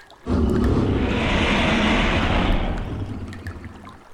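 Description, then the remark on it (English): A sudden loud rush of splashing water starts abruptly, holds steady for about two seconds, then eases off into a quieter trickle. No voices are heard. “He's ankle deep in the water over there.”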